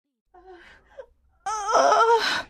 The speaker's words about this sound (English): They heard Christine's voice. She was making a noise of pain.